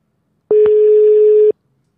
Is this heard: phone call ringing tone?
yes